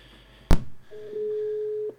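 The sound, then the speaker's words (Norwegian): A sharp click, then a single steady, mid-pitched ringing tone of an outgoing telephone call lasting about a second, heard clearly over a quiet line with no one speaking. “Vi må ringe på telefon.”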